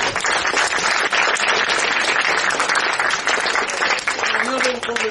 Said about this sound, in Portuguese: Uma salva de palmas para vocês que ficaram aqui.